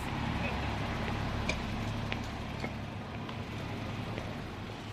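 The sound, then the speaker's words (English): Steady street traffic hums at a bus stop, with a low idling engine rumble and occasional faint clicks and knocks over a continuous wash of noise, plus indistinct voices in the background. “Okay, we'll head away from the bus stop.”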